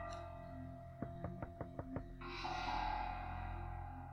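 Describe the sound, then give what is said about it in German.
Six quick, evenly spaced knocks rap on a house door, fairly loud. A steady rushing hiss then rises and continues to the end. No one speaks. “Wie könnte sie denn jetzt irgendwo hier, also wir klopfen sein. einfach mal.”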